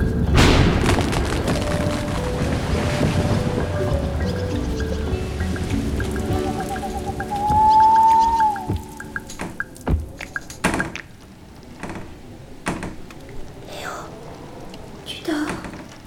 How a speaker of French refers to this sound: Comment tu peux dormir avec cette tempête